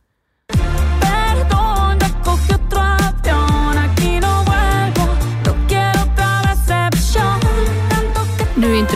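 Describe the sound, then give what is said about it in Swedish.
A Spanish-language pop revenge song plays loud, with a sung vocal melody over a punchy, steady beat and a bouncing bassline, starting after a brief moment of silence. “men då har hon gjort en hämndlåt eh, och sen där hon då liksom, som är jävligt bra och cool. Vi kan lyssna lite också på den.”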